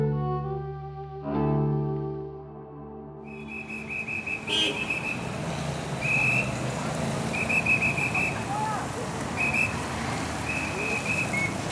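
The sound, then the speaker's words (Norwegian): Short, shrill whistle blasts from a police officer directing traffic in the middle of the intersection of Rue Saint-Honoré and Rue Royale repeat every second or two over a steady wash of city traffic noise, with a brief musical tone at the start. “Midt i krysset står det en politi og bruker fløyta for å dirigere trafikken.”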